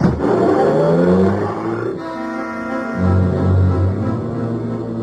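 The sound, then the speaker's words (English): A car engine revs loudly with a deep, throaty rumble that surges, dips, then swells again as the vehicle pulls off to follow a Cadillac, with no voices. “I watched my new assistant investigator follow out after Markham's Cadillac.”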